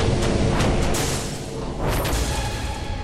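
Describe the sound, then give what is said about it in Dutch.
A loud, deep explosive boom of a large El Al Boeing airliner crashing, with a heavy rumbling roar that carries on for several seconds, punctuated by a few sharper bursts, with no voices. “De Boeing van El Al grote is neergestort.”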